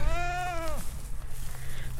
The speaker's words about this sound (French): Euh, où quand on arrive, on dit Ah, c'est joli, on entend les animaux, on entend les chèvres.